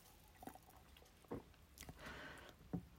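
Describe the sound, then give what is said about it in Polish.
Someone takes a sip of water: a few soft, wet mouth clicks and a brief swallow, quiet and unhurried, with no talking. “Teraz sobie nie przypomnę, ale za to wezmę łyka wody.”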